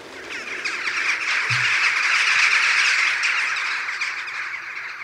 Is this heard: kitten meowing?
no